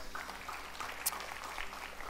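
An audience claps in a steady, dense patter of many hands, a soft continuous wash of applause with no voices standing out over it.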